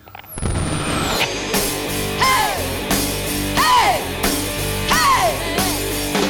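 A loud, driving punk rock song with dense distorted guitars, pounding drums and a high shouted vocal that rises in repeated yelps, opened by a brief descending feedback squeal.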